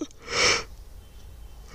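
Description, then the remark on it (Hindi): A single breathy yawn, a short airy rush of breath lasting about half a second that swells and fades, followed by near silence. “फिर मुझको उबासी आ रही है”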